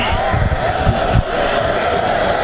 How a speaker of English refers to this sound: What a great night for football, today! oh, I mean, great weather. Great weather, football weather. The stadium packed, fans on their feet cheering. That's what it's all about.